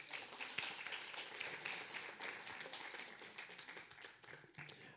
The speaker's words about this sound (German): Geben wir mal einen Applaus.